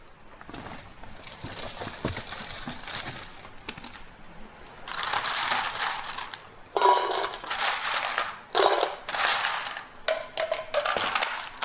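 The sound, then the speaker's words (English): Ice cubes clatter and rattle into a bowl in a kitchen, making an ice bath for cooked eggs, in several loud bursts, with quieter rustling before them and no talking. “Okay, meanwhile, while this is going, I'm just gonna get a bowl and put some ice into it.”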